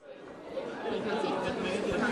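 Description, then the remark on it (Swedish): A steady hum of crowd chatter fills the foyer of Malmö University during a student information event with many organizations, many overlapping voices blending into a continuous murmur at moderate volume with no single speaker standing out. “Här i foajén till Malmö universitet, Niagara, står … och … har stått här sedan i morse”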